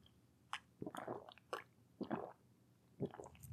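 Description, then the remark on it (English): Quiet sipping of tea: a series of short slurps and wet mouth sounds with small gulps between them, spread unevenly over a few seconds with no talking. “That's that's one of the main reasons I have this little break, so I can have a little sip of tea.”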